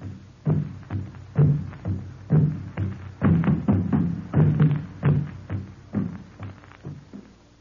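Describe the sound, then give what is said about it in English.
Hollow log drums with skin stretched tightly over one end boom in a steady, driving rhythm through the tropical night, each deep resonant strike following closely on the last for several seconds, loud with no voices, as villages pass a message along. “Drums made of hollow logs with skin stretched tightly over one end.”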